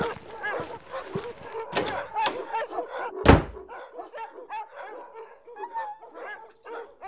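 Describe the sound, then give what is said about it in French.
Several Australian shepherd dogs and puppies bark and yip in a busy cluster in a large breeder's courtyard, with high puppy whimpers mixed in and one loud, sharp bark standing out midway. “Une fois arrivé, on est entré dans une grande cour où il y avait plein de chiens et de chiots. Tous des bergers australiens, mais pas tous de la même couleur,”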